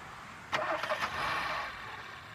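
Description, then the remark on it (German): A car engine cranks and catches with a sharp burst, then runs briefly in a steady, moderately loud rumble that fades slightly as the car pulls away from a motorway rest stop on the A61 towards Erftstadt, Germany. No one speaks. “Ja, da fährt er, da fährt er wieder los”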